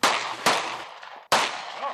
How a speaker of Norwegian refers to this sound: Det er fem skudd, det er fem mål du skal skyte på.